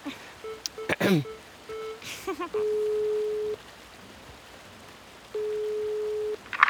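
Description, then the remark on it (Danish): Quick beeps of a phone number being dialed, followed by two long, steady ringing tones separated by a pause, heard clearly over a faint background hiss. “Så vi ringer lige til ham, og så får vi sikkert en masse idéer.”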